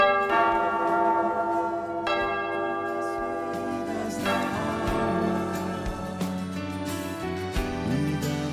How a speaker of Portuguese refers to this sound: Eu queria pedir: toca o sino, sacristão.